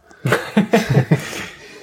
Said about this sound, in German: Ach, dieses Husten.